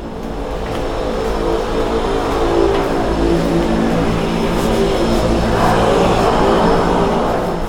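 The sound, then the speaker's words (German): A seaplane's propeller drones loudly and steadily throughout, a continuous engine hum with a throbbing low buzz and no voices, heard while walking down the stairs toward the seaplane harbor. “Ja, das sind die Propellergeräusche des Wasserflugzeugs.”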